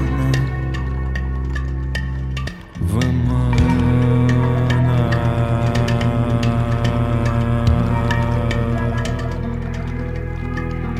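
Loud, dense song music with sustained harmonic tones and a steady pulse, briefly dropping out for a moment early on before carrying on at full level to the end, with no talking.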